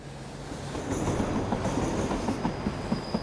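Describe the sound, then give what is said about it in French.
A train to Osaka, leaving at 16:55 after boarding at Shinagawa station, rolls along the rails with a steady low rumble and a regular clickety-clack of wheels over track joints, plus a thin high-pitched whine above. No one speaks. “Le train pour Osaka part à 16h55.”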